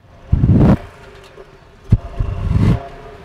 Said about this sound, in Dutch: Ja, klinkt toch weer iets anders dan de week daarvoor. Blijft eh, een ster. Ja, hij brult eh, iets minder als de andere achtcilinder van vorige week, maar het blijft weer een heerlijke achtcilinder.